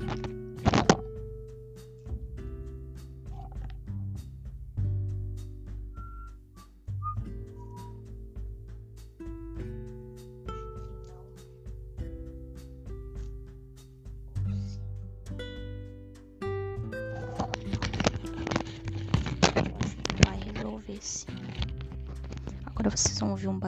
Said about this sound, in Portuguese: barulho estranho, porque eu desprendendo o microfone aqui para colocar em outro lugar.